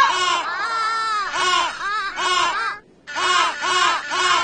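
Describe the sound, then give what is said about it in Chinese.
Loud, braying penguin calls come in a rapid string of harsh, wavering cries that rise and fall in pitch, with one brief pause before the calling resumes. “听起来是企鹅的声音呢。”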